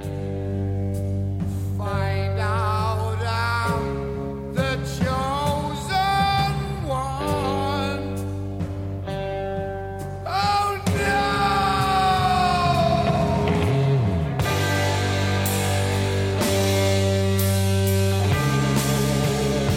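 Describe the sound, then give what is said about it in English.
The original demo version of a heavy metal song, with an extra verse later cut from the album version, plays loudly and continuously, with dense distorted guitars under wailing, sliding sung vocals that rise and fall in pitch, and a brief drop in the middle before the band crashes back in. “I think there was an extra um, verse on the uh, the original version that was cut out for the album. Let's hear a little bit of it.”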